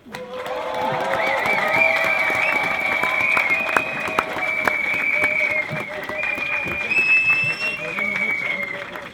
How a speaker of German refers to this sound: So, großen Applaus nochmal für die Landesschülerinnenvertretung Wien. Danke für euren Beitrag.